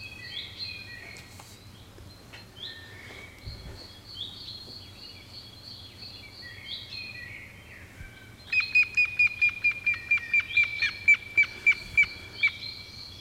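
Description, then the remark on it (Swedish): A grey-headed woodpecker's territorial call, recorded fairly close: a clear, evenly paced series of about a dozen whistled notes that gradually fall in pitch, heard over softer background birdsong and a low steady hum. “Och det här är ett rödlätet som man framförallt hör under våren, det är ett revirrop, gråspettens revirrop.”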